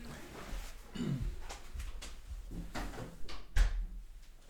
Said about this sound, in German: Moment, ich muss kurz die Tür zu machen.